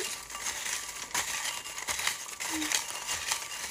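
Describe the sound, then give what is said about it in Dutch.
Continuous rustling and crinkling of paper as hands dig through a pile of folded slips to draw a winner, with a few sharper crackles standing out over the steady, fairly loud shuffling. “Het zijn allemaal dichtgevouwen vouwbriefjes.”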